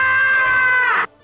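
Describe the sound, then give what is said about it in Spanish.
A cartoon cat, Tom, lets out a loud, humanlike scream, one sustained shrill yell lasting about a second that cuts off abruptly, with no talking. “Pasamos de ese gato a este gato, que suena así.”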